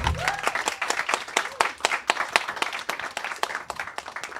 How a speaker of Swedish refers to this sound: Eh, och ett stort tack till våra pizzamakare där bak. Eh, ge dem en applåd.